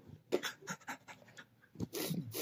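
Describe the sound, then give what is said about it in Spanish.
A person imitates a dog panting, with quick, breathy huffs in a rapid rhythm followed by a longer, louder rush of breath. “Los perros pueden sacar la lengua y respirar.”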